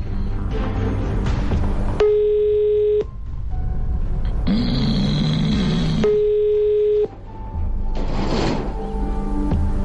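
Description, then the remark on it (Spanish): A steady telephone tone sounds in two separate one-second bursts among busy background noise, with bursts of dialing tones between them as a phone call is placed; a brief murmur is heard. “Pero como no ha llamado, lo llamamos nosotros para que quede todo claro.”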